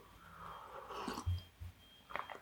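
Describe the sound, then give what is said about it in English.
A quiet slurp of hot tea, a drawn-in airy sip followed by soft swallowing gulps and a faint clink near the end, with no talking. “Okay, so I'm going to run through what I achieved in 2021 just after a slurp of tea.”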